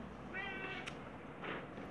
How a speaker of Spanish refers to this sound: Es, mi gato está maullando.